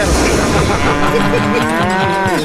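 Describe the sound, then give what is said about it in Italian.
A single cow moos loudly, one long drawn-out low call that holds for a couple of seconds over faint background noise. “In India la vacca è sacra e girano per strada e cagano tantissimo.”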